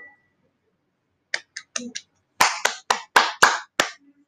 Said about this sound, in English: That's me coughing in the background.